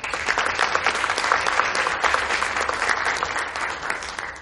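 A room full of people applauds steadily, a dense wash of clapping that holds at a consistent loudness for several seconds before tapering slightly at the end.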